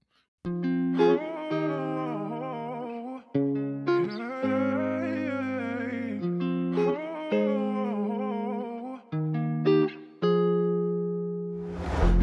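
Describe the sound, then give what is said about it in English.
The intro of a hip-hop single, built from bright, sustained synth chords and melodic phrases that repeat in short sections, with no vocals, ending in a brief noisy swell. “I just dropped my new single, man, highly anticipated from the heart out on all platforms. But here it is right now since you're already listening to this episode.”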